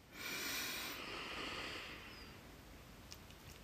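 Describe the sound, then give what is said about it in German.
A single long, deep inhale through the nose, taken as part of a guided breathing exercise, an airy rushing hiss that swells quickly, holds for about two seconds, then fades into quiet. Fairly soft, with no talking. “Dann würde ich sagen, wir atmen kurz tief ein”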